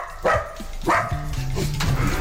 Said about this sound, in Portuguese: Uma rubrica de rádio boicotada por cães.